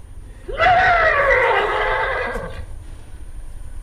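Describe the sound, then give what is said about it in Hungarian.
A single loud neigh from a thirsty horse, rising sharply then holding a shrill, wavering whinny for about two seconds before trailing off, with no talking. “Ez egy szomjas lónyerítése.”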